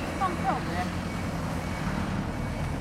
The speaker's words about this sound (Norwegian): Det er en søppelbil som rygger av, vet du.